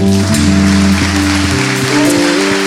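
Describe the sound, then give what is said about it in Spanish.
Loud, dense applause from a crowd thanking the Lord fills the whole clip without letting up, while sustained keyboard chords shift slowly underneath. “con un fuerte aplauso.”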